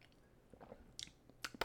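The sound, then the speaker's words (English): A quiet first sip of bourbon barrel-aged wine: a few soft, wet mouth clicks and a brief slurp over faint background hiss, with no talking. “That was my first sip.”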